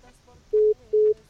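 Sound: telephone busy tone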